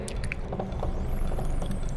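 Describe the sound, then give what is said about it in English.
Water drips in a steady series of small drops, each a brief wet plink over a low background hiss, with no voices. “She was falling asleep when she heard the dripping noise again.”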